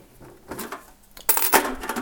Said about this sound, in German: So, falls noch jemand eine Idee hat da draußen, ich habe hier so eine Blechdose mit Kleingeld. So äh, 5 Cent Münzen, 10 Cent Münzen, vielleicht auch noch ein paar 50er.